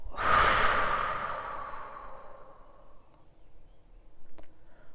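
A single forceful exhale through the mouth after a deep breath in, during a guided breathing exercise, a loud breathy rush that starts abruptly and trails off gradually over a few seconds, with no talking.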